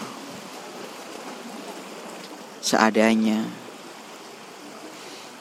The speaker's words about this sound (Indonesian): dengan backsound ada suara ombak yang cukup kencang eh nggak terlalu kencang sih mungkin karena gue terlalu di tengah aja nih karena memang sekarang lagi pasang jadi tadi sempat kecipratan ombak dari air asin pantai